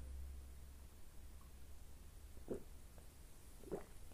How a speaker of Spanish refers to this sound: Mientras tanto, le voy a dar un sorbo al té matcha que ahora se habrá enfriado. Está muy caliente.